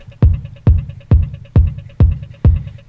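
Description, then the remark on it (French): A punchy kick drum is added in a steady four-on-the-floor pulse, six hits at a brisk tempo, over a sustained buzzing synth sample, as a track is built up, with no voices. “Maintenant, on ajoute un kick.”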